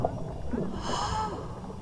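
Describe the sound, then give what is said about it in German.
A body plunges with a loud bang into the water of a pool, followed by a steady wash of muffled underwater gurgling and bubbling that fills the whole moment, with no one speaking. “Im letzten Moment zog er die oh Beine an, machte sich ganz klein und tauchte mit lautem Knall ins Wasser hinein.”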